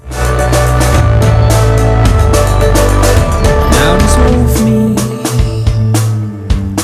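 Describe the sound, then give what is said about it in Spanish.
An indie rock song plays at full volume, with steady drum hits, a driving bass line and layered guitars over a sustained harmonic wash, continuous for several seconds with no talking. “Algo de indie, ¿por qué no?”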